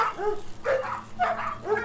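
Three terriers yelp from behind Dr. Seward's house in answer to a low, shrill whistle call: quick, overlapping bursts, high-pitched and excited, about four sharp cries in under two seconds, steady in loudness with no talking.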